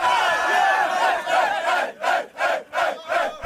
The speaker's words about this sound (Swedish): det kommer eh, en liten eh, jingle här och sen så kommer det lite info.